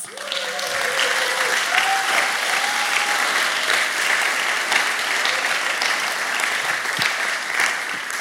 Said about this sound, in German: Hey, wenn Jesus dein Leben verändert hat, hey, dann gib ihm doch mal einen Applaus.